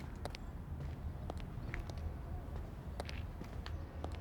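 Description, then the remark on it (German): Footsteps of two people walk at a steady, unhurried pace through empty city alleys on a starry night, each step a sharp tap on a hard surface, heard over a low, continuous outdoor rumble with no voices. “Wir spazieren durch die menschenleeren Gassen.”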